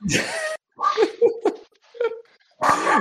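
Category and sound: animal, dog barking loudly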